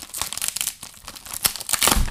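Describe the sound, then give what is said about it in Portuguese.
Gift wrapping paper held with sticky tape being torn open and crumpled in quick, irregular bursts, a crisp crackling rip that rises and falls for a couple of seconds, with no talking over it. “Ainda tem a parte de coisa de fita cola. Incrível. Assim, Vá, fazes. Rasga.”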